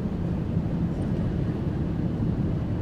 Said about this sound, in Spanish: comenzamos la grabación en un tranvía.